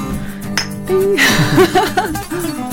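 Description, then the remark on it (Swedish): Glasses clink together in a toast, a bright chime followed by a lingering ring, while voices murmur and chuckle around it. “Skål. Skål.”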